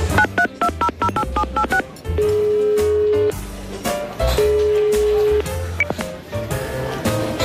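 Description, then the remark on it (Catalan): A rapid run of about eight or nine touch-tone beeps as a phone number is keyed in, followed by longer steady tones over a dense, busy background. “passa'm el telèfon, no trobaré el Canut”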